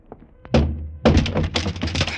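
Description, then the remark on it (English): A door is kicked open: two heavy thuds against wood, the second bursting into a loud rattling crash and clatter as it gives way. No voices. “Shoot the lock off the door, Muggerman. I'll kick it open.”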